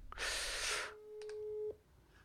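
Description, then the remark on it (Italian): A telephone line rings once with a steady, clear ringback tone lasting about a second, preceded by a brief burst of static hiss; no one speaks. “Oh, no, squilla, squilla.”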